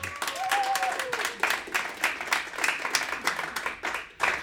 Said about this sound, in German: Und darum bitte ich euch zum Beweis um einen herzlichen Applaus für die Frau, die heute Gast ist